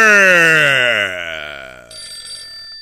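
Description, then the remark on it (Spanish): A telephone ringing: a loud electronic tone that slides steadily downward in pitch for about two seconds, then switches to a steady, high, buzzy ring with no voices. “Y suena el teléfono ese ahí cuando está dando el teléfono ahí en la cabeza.”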